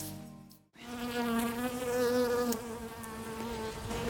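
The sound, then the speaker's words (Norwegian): A bee buzzes steadily, a continuous droning hum with slight wavering pitch, heard alone after a brief cut at the start. “Over 20 av Norges eh, ville bier og humler er trua av utryddelse.”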